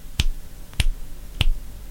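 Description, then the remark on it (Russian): Three crisp finger snaps at an even, unhurried pace, each a sharp bright click with a brief low thump, standing alone with no voices in between. “То есть я сжал пальцы, и если бы я не сильно их сжал, щелчка бы не получилось.”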